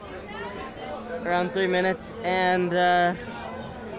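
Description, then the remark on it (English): A steady murmur of crowd chatter fills the standby line of a theme park ride, a low background hum of many voices while one person talks over it. “Okay, so now we're in the standby line in Pirates.”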